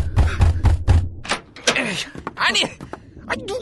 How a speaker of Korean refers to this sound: 이렇게 격조 없이 남의 집 문을 두드리십니까?